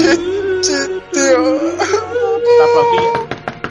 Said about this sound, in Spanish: Cariño, estás llorando